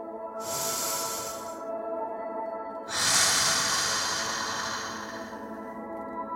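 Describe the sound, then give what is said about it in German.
A slow, deep breath drawn in and then let out in a longer airy exhale, fairly loud, over a steady low humming background with no talking. “Nimm noch einmal unter Wasser einen tiefen Atemzug.”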